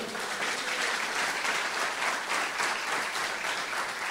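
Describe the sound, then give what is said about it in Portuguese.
An audience breaks into sustained applause for the Lord, many hands clapping in a dense, steady wash of noise that holds its level throughout, with no voices standing out. “Você pode aplaudir o Senhor porque nós vamos aprender isso?”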